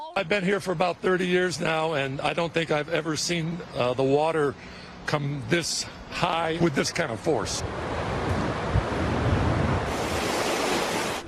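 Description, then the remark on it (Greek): A voice speaks for the first several seconds, then gives way to a loud, steady roar of storm wind and rushing floodwater from extreme weather, with floods turning streets into rivers in the eastern United States, which fills the last few seconds on its own. “Με χιόνια να σαρώνουν τα δυτικά και πλημμύρε να μετατρέπουν του δρόμου σε ποτάμια στα ανατολικά.”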